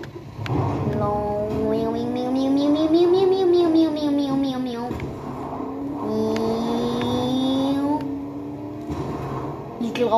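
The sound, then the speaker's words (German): A video game car engine drones steadily, its pitch climbing and dipping in smooth revs as the car drives on, with a second rise toward the end. “Hey, ja, ich fahre mit der Karre.”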